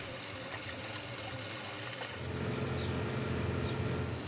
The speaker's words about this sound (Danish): De indledende manøvrer er overstået, og nedføringen af strømpen kan begynde. Der åbnes for vandet, og trykket gør omgående sin virkning.